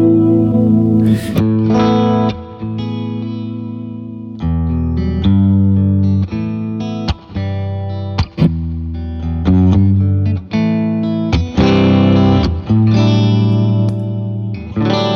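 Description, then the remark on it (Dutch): A Novo electric guitar plays a run of sustained, effects-heavy chords and notes with distortion and shimmering modulation, steady and fairly loud, with brief gaps between phrases and no voices. “eh nou, dit is dus eh, mijn, eh mijn Novo gitaar.”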